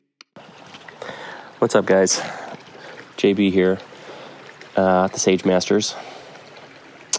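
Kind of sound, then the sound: nature, flowing creek water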